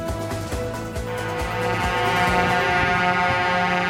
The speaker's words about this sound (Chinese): 鸣笛声响，土耳其最具代表性的游泳比赛二十号开跑。